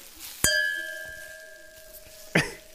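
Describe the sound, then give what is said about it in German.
Two wine glasses, poured from a bottle of Riesling, clink together in a toast, a bright ringing chime with sustained tones that slowly fade, followed by a second, softer clink a couple of seconds later. “zwei Gläser und eine Flasche Riesling fertig? Ah, Luki, endlich wieder Riesling und Fritte. Cheers.”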